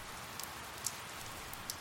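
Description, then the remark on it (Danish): Steady rain falls in London with a soft, continuous hiss, dotted with a few sharper drips and patters. It's fairly quiet and even throughout, with no voices. “Vi er i London, så det regner sikkert.”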